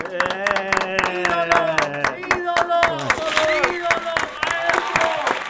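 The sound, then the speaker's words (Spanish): Steady applause with sharp, rapid claps running throughout, mixed with loud, pitched crowd voices cheering and calling out over it, as Bomba Contreras arrives on the programme with his wife. “Un aplauso.”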